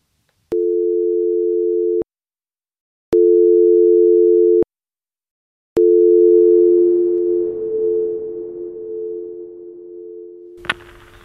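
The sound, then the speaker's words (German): Phone ringback tone after a number is dialed on a mobile phone to Thomson Reuters: three long, steady electronic purrs separated by short pauses, the last one drawn out over faint line hiss before a sharp click as the call connects. “Als sie die Nummer in ihr Handy tippt, sieht sie ziemlich entschlossen aus.”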